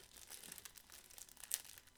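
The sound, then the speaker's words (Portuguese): Crisp crinkling of the plastic wrapper of a sesame snack bar being handled and opened, with irregular rustles and a sharper crackle near the end, no voices. “Menino, pega a tesoura e corta logo.”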